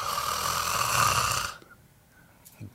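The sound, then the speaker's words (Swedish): A person imitates a snore with one loud, raspy, rattling breath lasting about a second and a half, then it cuts off into near silence. “drar några snarkningar.”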